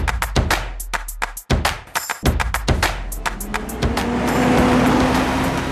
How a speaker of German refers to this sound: Priska Keller nimmt den Bus.